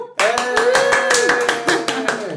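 Loud applause welcoming a guest who has just been introduced, with a steady, rhythmic clapping pulse that runs for a couple of seconds, with a sustained tonal sound, like a voice or cheer, held underneath.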